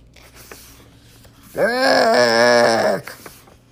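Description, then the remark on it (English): A voice imitates a badly played trumpet, as Piggie's trumpet in a reading of Mo Willems' book Listen to My Trumpet, with a single loud, buzzy note lasting about a second and a half. Its pitch wobbles unsteadily, and quiet room sound comes before and after. “I have a trumpet. Do you want to listen to my trumpet?”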